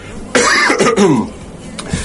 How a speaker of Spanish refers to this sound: Como siempre digo, este programa es en vivo y esto que escucharon ahora fue una tos del locutor.